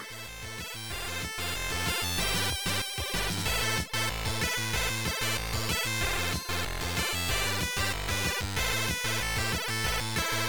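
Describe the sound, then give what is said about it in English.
Bright, busy chiptune music in the style of an old PC Engine or TurboGrafx game, driven by steady, rapid wood-block knocks that keep a tight rhythm throughout. It plays loud, with no voices. “And this this like a bit like this PC engine or TurboGrafx style sounds that is knocking these wood blocks and such.”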